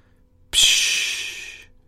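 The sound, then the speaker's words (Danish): A harbour porpoise exhales once as it surfaces about 5 metres behind a boat off an island in Denmark on a warm mid-May evening: a sudden, sharp breathy puff, close and fairly loud, that hisses out and fades over about a second against otherwise quiet surroundings. “siger det igen, og et marsvin stikker sin ryg og den lille trekantede rygfinde op af vandet, kun 5 meter bag ved båden.”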